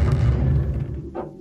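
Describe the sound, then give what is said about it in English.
A heavy flotation tank chamber door swings open, with a deep, steady rumbling whoosh that fades, then a short higher-pitched creak or hiss just before the end. No one speaks. “and then I'm going to open this chamber door, you know, which uh, sounds like this.”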